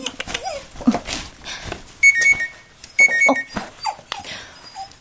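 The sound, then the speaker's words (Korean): A mobile phone rings in two bright, electronic bursts, each about a second long, while a small dog whimpers and yips throughout. “어. 금수 자식 전화구만.”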